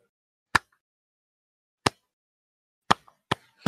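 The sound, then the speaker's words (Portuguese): Single hand claps, sharp, start slowly and come closer and closer together, speeding up over five claps in an accelerating 'growing clap', with no talking. “Você vai com a palma, ela vai. Não vai já. Não, você vai crescendo, ó.”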